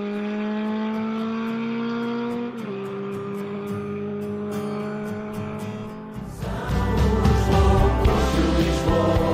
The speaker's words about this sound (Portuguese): As motas já lá vão